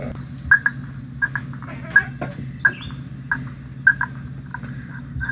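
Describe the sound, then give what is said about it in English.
A hunter's call imitating a turkey hen: a series of short, sharp yelps, about eight notes in loose pairs, fairly loud and clear over a steady low background rumble. “Is that a hen or is that a hunter?”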